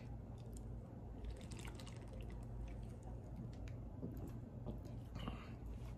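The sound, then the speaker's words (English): Beer being poured, a steady stream of liquid with fizzing and small drips running continuously over a low background hum. “One hundred percent Rocky Mountain water.”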